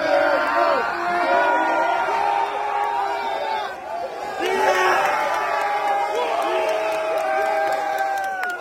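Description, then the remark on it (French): A large crowd in the grandstands at the 2024 Phoenix Open, a PGA Tour event on the Stadium Course of the Tournament Players Club in Scottsdale, Arizona, cheers and shouts continuously, with whoops and bellowed calls rising over a dense wall of voices, loud throughout, briefly dipping midway before surging again. “Bienvenue à Scottsdale, Arizona, autour du Stadium Course du Tournament Player Club qui accueille la sixième levée du PGA Tour 2024 ses grilles manucurés, ses montagnes au loin, ses cactus, ses tribunes et sa foule de prix Nobel.”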